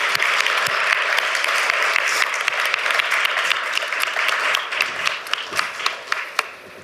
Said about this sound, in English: So I think let's give uh, the minister an applause before he leaves.